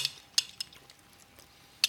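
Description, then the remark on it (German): Faint, wet lip-smacking from someone eating: a few sharp, crisp clicks spaced irregularly, with quieter mouth sounds between them and no talking. “ja, ich wollte gerade sagen, schön, dass ich so schmatze.”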